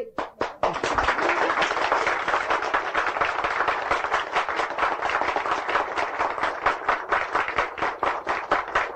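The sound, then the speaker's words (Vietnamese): A crowd in a meditation hall bursts into loud, sustained clapping, dense rapid claps without pause, with a few sharper pops at the start like small firecrackers. “mà ngay trong thiền đường này ngay trong thiền đường này nhiều pháo lắm thấy chưa thấy à hả nổ đi”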